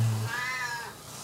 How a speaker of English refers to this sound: That's a cat, Frida. She loves rosettes.